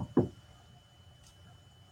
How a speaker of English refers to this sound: And and then here's the thing, knock on wood.